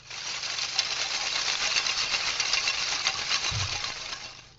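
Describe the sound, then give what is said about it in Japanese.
Many small hanging pieces of foam food tray clatter against one another. The trays are the washed supermarket meat and fish kind, cut into roughly 3 cm squares and hung up. They make a dense, steady rattle of light ticks that runs throughout, with no voices. “ちょっと不思議な音がしてますけども、これはですね、食品トレイをたくさん切って吊り下げてあります。”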